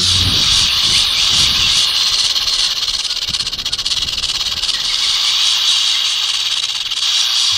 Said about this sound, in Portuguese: a cascavel faz esse som, é algo bem particular dessa cobra, né? Com um guiso que ela tem na ponta da cauda